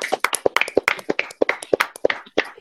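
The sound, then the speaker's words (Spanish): Applause welcoming a guest onto a hip hop show: a quick, uneven stream of sharp, bright claps, fairly loud and steady throughout, with no voices over it. “Yo quiero que lo recibamos con un fuerte aplauso.”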